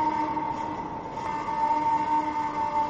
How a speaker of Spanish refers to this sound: Y el monstruo abría la boca y emitía unos sonidos potentes, los sonidos de la sirena del faro, una y otra vez.